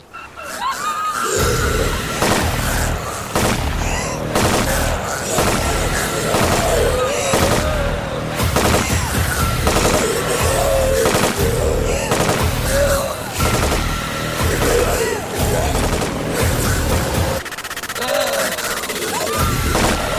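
Several guns fire rapid, overlapping bursts nonstop from inside a building, loud and close, creating a dense, chaotic barrage that never lets up from start to finish.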